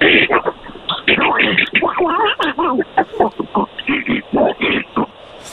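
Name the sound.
cartoon duck voice imitation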